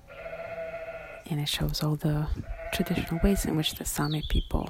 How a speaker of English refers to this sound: They also herd sheep and reindeer. Those are some of the animal sounds you're hearing behind me, part of the installation.